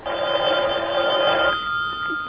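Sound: telephone bell ringing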